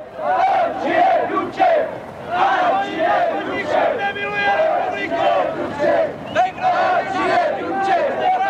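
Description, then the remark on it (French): A large crowd cheers and chants for Comrade Dubček loudly and continuously, voices rising in rhythmic, repeated shouts that swell and dip over several seconds, with no single voice standing out. “La foule acclame le camarade Dubček.”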